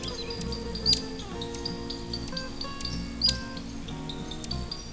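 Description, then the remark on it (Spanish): Giant hummingbird (Patagona gigas, also called pingara, weighing up to 20 grams) calls in Chile: two sharp, high-pitched squeaky chirps a couple of seconds apart, with fainter thin peeps scattered between, over a steady low background hum. “En Chile podemos avistar un colibrí, el Patagona gigas, colibrí gigante o pingara, que puede llegar a pesar hasta 20 gramos.”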